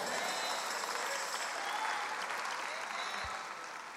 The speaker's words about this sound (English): The claps are getting lower and lower and lower.